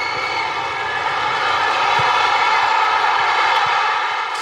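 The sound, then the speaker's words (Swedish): A steady, loud stadium drone from the crowd at a Swedish women's national football team match, heard on a live TV broadcast, a continuous humming wall of sound that holds without breaks or swells for the whole stretch, with no voices standing out. “Jag säger inte att det är pålagt för att jag tror att det är orimligt att det svenska damlandslaget har ett sånt liksom, eh, en, en sån ljudkuliss runt sina matcher.”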